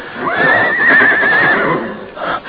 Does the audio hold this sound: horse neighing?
yes